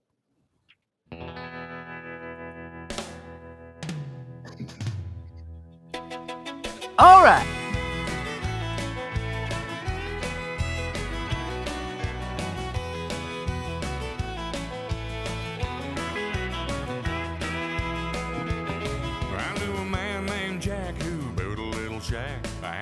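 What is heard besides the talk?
song played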